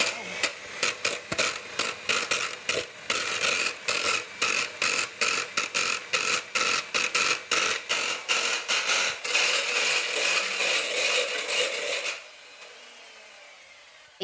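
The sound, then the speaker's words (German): A kitchen mixer in a mixing bowl pulsed in quick, rhythmic bursts, its whirring cutting on and off in a steady beat before running continuously for a few seconds and then stopping abruptly. “Versuch mal, ob du mit dem Mixer so ein paar Rhythmen machen kannst.”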